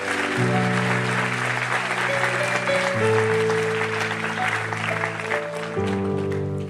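audience applause

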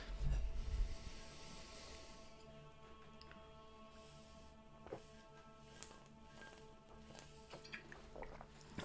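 drinking water

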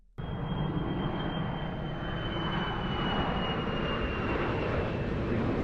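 airplane engine flying overhead

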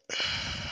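yawn

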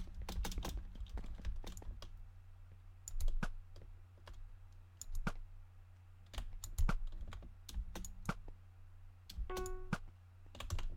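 computer keyboard typing

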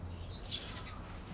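birds chirping outdoors

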